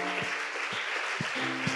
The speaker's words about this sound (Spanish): Junte sus palmas, dele fuerte el aplauso a Dios. Aleluya.